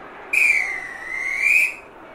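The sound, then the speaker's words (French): A referee's whistle gives one long, shrill blast of about a second and a half, loud, wavering slightly in pitch before cutting off, as the referee blows for half-time in the 32nd minute of a match. No one speaks. “La première impression laisse vite sa place à un sentiment de gêne totale, on joue la 32e minute de jeu et l'homme en noir décide de siffler la mi-temps.”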